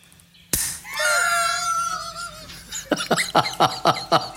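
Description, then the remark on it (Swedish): A sparkling wine bottle is opened gently so that it does not pop, with a brief, soft hiss of escaping gas, followed by a high squealing tone and then a run of short, rhythmic bursts. “Sen ska det här egentligen låta som en nunnefis om man öppnar den rätt. Det ska men, inte poppa.”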